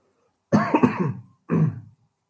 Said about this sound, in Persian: اول من بگم این سرفه که من میکنم سرفه های گذشته از کرونا یعنی دو سه هفته پیش گرفتم و همچنان سرفه ها باقی مونده دیگه